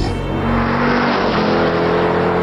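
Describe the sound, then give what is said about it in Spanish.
A car engine revs hard and accelerates, a loud, steady roar with rising harmonic tones, no voices present. “Aceleró la velocidad del auto.”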